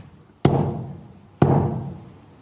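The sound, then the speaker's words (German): Two loud metallic knocks on a sheet of metal in Greece, about a second apart, each with a sharp attack and a ringing, slowly decaying resonance, made as a signal to a flock of sheep. No voices. “Plötzlich sehe ich einen Herd klopfen auf ein Blech denkt, was macht denn der da?”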